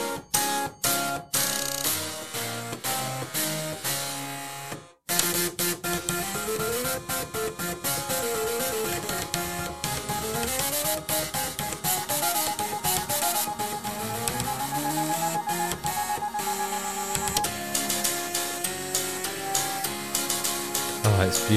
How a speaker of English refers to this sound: Do you want to have a listen then to what 512 floppy disk drives, 16 hard drives, and four flatbed scanners sound like together? Here it is. This is the Floppotron 3.0.